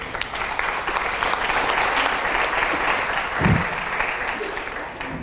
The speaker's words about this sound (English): So please, guys, one big round of applause for my female superheroes right here.